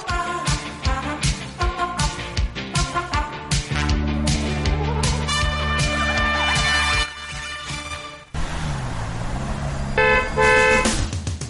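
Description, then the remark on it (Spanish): Dense traffic jam with many car horns honking, short toots and long sustained blasts overlapping, loud over a rumbling engine din. No one speaks. “Atascada en el tráfico”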